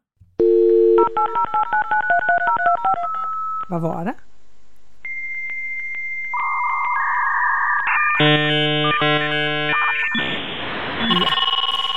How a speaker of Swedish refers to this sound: En gammal internetuppkoppling.